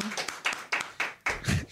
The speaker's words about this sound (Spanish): ¡Eso! ¡El aplauso, por favor!